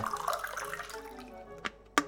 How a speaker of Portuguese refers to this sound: Agora que estão bem limpinhos, Vamos colocar esses moranguinhos todos no liquidificador. Com um pouquinho de água.